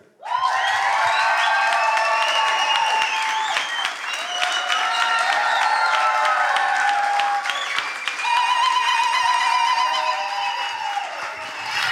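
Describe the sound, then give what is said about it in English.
A workshop audience bursts into loud, sustained applause mixed with cheering, shrieks and high whoops, giving a guest a warm African welcome; a dense roar that barely dips for the full twelve seconds. “So, uh, without further ado, let's please give a very loud, warm African welcome to uh,”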